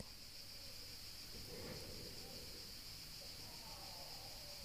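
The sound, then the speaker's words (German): A steady, continuous chorus of crickets chirping, high-pitched and even throughout, with a soft rustling outdoor ambience underneath and no one speaking. “Du hörst das Singen der Vögel und das Zirpen der Grillen.”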